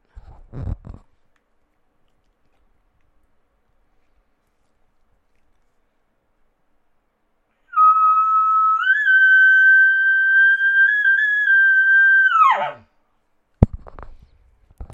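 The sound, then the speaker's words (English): A person blows a single non-aggressive elk locate bugle on a latex call: a steady, high whistling tone lasting about five seconds with a slight upward bounce made by tongue pressure, ending in a quick downward drop. Brief clicks come before and after. “So I don't know if you could catch it in that bugle there. I had a little bounce in it, mm.”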